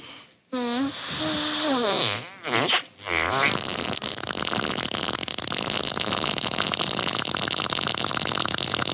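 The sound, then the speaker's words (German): A woman blows a long, wet raspberry with her mouth, imitating a fart: loud, with wobbling pitch bends in the opening seconds, then a sustained buzzy, sputtering rasp for the rest. “wie sie furzt. Allerdings nicht wirklich, sondern mit ihrem Mund, um andere Leute zum Lachen zu bringen.”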